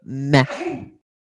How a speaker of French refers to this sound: vu que mon cousin, il a éternué